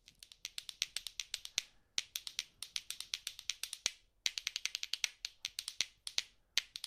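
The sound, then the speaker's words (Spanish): Rapid, bright clicking of two limpet shells struck together as a percussion idiophone, played in quick rhythmic bursts with short pauses between phrases, crisp with no voices. “La, lapa pertenece al grupo de instrumentos que se llaman idiófonos entrechocados si es muy cóncava no sirve.”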